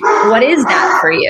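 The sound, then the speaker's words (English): A big mastiff dog barks and yips in short bursts while a person speaks over it, the barking and voice overlapping throughout. “He he's a mastiff, so he's very big.”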